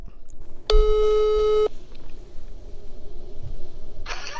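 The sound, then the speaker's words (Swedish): A single telephone ringing tone sounds for about a second while placing a call, a steady electronic buzz heard through the line, followed by quiet background noise and a brief hiss near the end. “Eh, så vi ringer till honom och kollar.”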